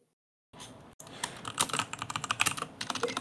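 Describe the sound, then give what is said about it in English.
Rapid, irregular clatter of keys being typed on a computer keyboard over a faint background hiss, with no one speaking. “We can no. hear you typing.”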